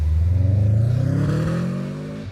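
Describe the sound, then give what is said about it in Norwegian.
A car engine revs up loud, its pitch climbing steadily as the vehicle pulls away after a school graduation, with the sound easing off slightly at the end. No one speaks. “Som da innebærer at eh, Alfred holder den obligatoriske talen på skoleavslutninga før han setter seg i bilen og drar sin vei.”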